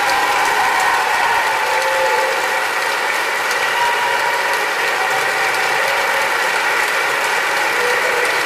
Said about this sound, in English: Mr. Hendrickson steps forward to take his bow, the hall erupts in applause